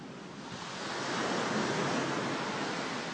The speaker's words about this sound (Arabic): ومطيرات شوي تمطر وطلعنا عند البحر عاد سبحان الله اسمعوا صوت البحر بالله اسمعوا اسمعوا اسمعوا